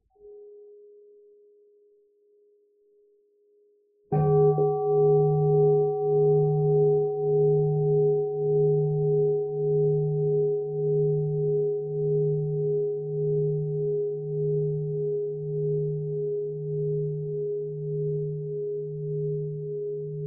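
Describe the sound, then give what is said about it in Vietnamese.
A meditation bell, struck by the teacher during a Buddhist dharma talk, gets a soft preliminary tap, then one full strike that rings out loud and clear, its deep hum pulsing steadily as it slowly fades over many seconds, with no voices. “xin sư phụ thỉnh một tiếng chuông cho mọi người buông thư”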